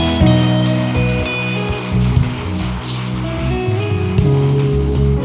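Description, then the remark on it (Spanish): An audience applauding steadily, a dense wash of clapping that holds for about five seconds over sustained keyboard chords that shift pitch now and then. “Dale un fuerte aplauso, Señor, si recibiste.”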